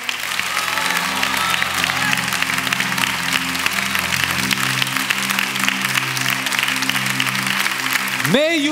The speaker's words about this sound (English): If that's your heart, clap your hands and say, Yes, Lord.